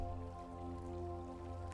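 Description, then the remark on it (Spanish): Water flows and trickles softly in the background beneath a steady, sustained tonal drone, quiet and continuous throughout with no one speaking. “Y así como escuchamos de fondo el agua, dejemos fluir las cosas como llegan”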